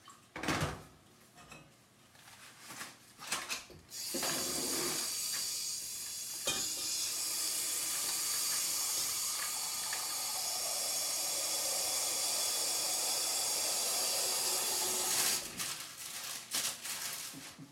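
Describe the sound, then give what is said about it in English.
Water pours into a pot in a steady, loud, hissing rush lasting about eleven seconds, after a few short clanks and knocks at the start. “Um, if you just put some water in there.”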